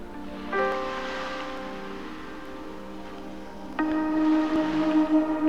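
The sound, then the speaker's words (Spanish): Soft ocean surf swells and washes ashore in gentle surges, blended with sustained, calm meditation music drone tones that rise in two slow waves; no one speaks. “Meditacion astral con el mar con el atardecer”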